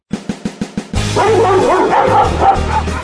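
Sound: dogs barking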